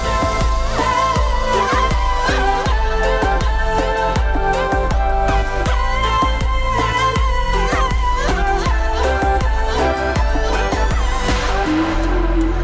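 A pop rap track plays loud and steady, with a driving beat, punchy bass and layered synth melodies running throughout without a break.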